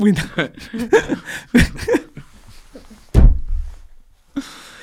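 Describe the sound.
A single heavy door slam lands with a loud, booming thud and a short low rumble, following a stretch of people talking and laughing, then near silence.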